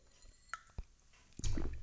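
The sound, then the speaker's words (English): A person takes a sip of water: a couple of small wet mouth clicks, then a louder slurping, swallowing burst near the end. No one speaks. “I had to get a drink of water.”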